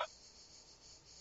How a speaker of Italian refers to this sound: Ecco c'è le gazze, ecco c'è il suono delle, delle cicale adesso. che bello, le senti?